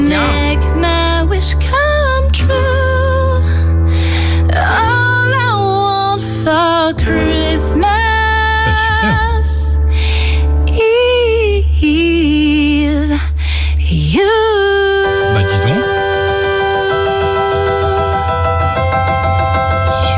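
A recorded pop song cover plays steadily and loudly, with a sung melody of sliding, ornamented notes over a constant bass and backing, ending on long held tones with no talking.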